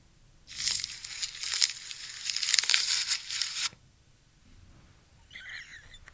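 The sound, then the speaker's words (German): A loud rough tearing and ripping, like leaves being stripped from branches, lasting about three seconds, followed after a pause by a brief fainter crinkling rustle; an imitation of a giraffe eating leaves. No one speaks. “Ah, ja, die Giraffe, die Blättchen frisst.”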